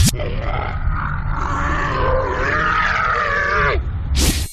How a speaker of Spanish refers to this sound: Sonido animal. Es un, es un dromedario que está peleando con otro,